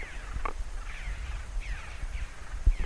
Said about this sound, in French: il y a les corbeaux qui s'envolent derrière moi.